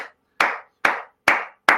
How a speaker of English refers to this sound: clap for God, man. Clap for God. Just clap for God.